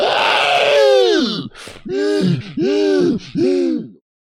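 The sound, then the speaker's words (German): A person voices a ghoul's scream: a long, loud wail that swoops down, then three shorter descending howls in quick succession, unaccompanied. “Der andere Ghoul dahinter schreit laut auf.”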